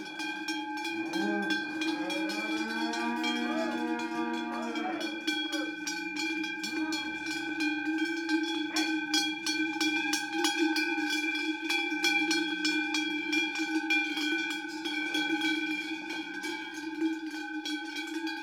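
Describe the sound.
Many cowbells clang and jingle continuously as a herd of cows leaves the barn to graze on an alpine pasture in Valais at about 1800 metres. A few drawn-out moos sound near the start, with faint voices in the background.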